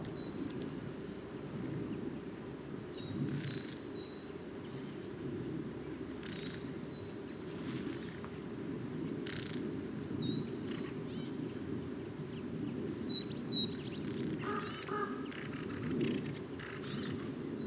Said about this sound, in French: Ça y est, les premiers cris de pinson du Nord de l'année. Avec un grand corbeau.